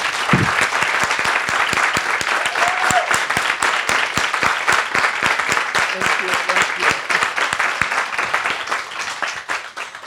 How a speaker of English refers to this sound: Doesn't that deserve an applause? The first pride in Kisumu, Kenya.